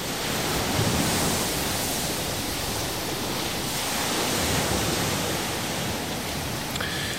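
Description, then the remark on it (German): A steady, dense roar of wind and breaking waves on the open coast of Lamb Holm in Scotland's Orkney Islands, continuous and fairly loud throughout with only slight swells in intensity, and no voices. “Ein Kleinod italienischer Kirchenkunst mitten auf Lempholm zwischen Schafen, Wellen und Wind, das es nur gibt wegen eines deutschen U-Bootes.”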